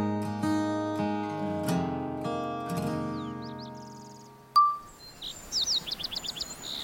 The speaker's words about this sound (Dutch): Hoor je dat, zelf? De vogels in de bomen